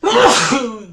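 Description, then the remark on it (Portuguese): A single loud sneeze, a sharp breathy burst that trails off over about a second, with no talking around it. “Saúde, né?”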